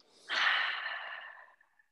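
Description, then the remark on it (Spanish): One long, deep breath, fairly loud, a breathy rush of air that swells quickly and then trails off slowly over about a second, with no talking. “después de esta respiración profunda”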